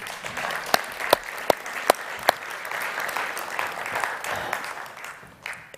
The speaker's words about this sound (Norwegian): Amen. En flott sang. Syns vi kan gi en applaus for den, kan vi ikke det?